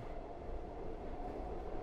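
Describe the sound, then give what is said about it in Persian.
A steady rumble of a subway train rolling along the rails, ridden toward the city hall building and Chamber Street, a dense low roar with a faint metallic hiss above it, continuous and even with no voices. “اون یه دفتر تو ساختمون شهرداری داشت با مترو رفتم سمت اون ساختمون و خیابون چمبر”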